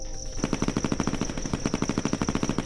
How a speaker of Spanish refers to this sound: Fueron sorprendidos durante la madrugada, cuando todos dormían en un centro de rehabilitación para adictos en Tlaquepaque, Jalisco. El ruido de las ametralladoras terminaron con el silencio de la noche.